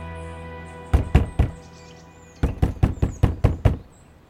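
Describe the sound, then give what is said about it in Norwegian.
A woman knocks on another woman's door: a first set of three quick raps, a pause, then a longer run of six firm knocks, with faint birdsong and a steady low hum behind. “Hun banker på døren hennes.”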